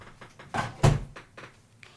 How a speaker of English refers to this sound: I guess if Monty's chilling, we can close the door.